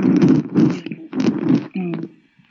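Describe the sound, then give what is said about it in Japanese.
Fairly loud rustling of clothing or fabric in several rough bursts, as if someone is shifting around, followed by a short humming tone before it fades out. “あんまり動かないでください。ガサガサ音してますよ。”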